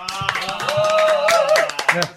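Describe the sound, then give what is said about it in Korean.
A short burst of applause on a broadcast: several people clap in quick, uneven bursts to welcome the host's close junior colleagues, who came to celebrate the channel's first broadcast, while voices cheer and call out over it, with one sustained voiced whoop through the middle. “축하해주기 위해서 음. 제또 친한 우리 후배들이 오셨습니다. 박수.”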